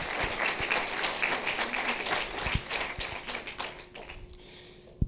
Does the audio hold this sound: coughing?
no